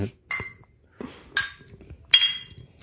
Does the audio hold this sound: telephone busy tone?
no